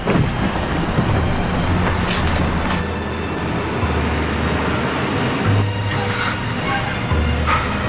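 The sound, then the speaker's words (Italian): A train to Montauk rolls steadily along the rails, a continuous rumble with a low droning hum and faint rattling. It stays at an even, moderate loudness throughout, with no voices. “Ho preso un treno per Montauk.”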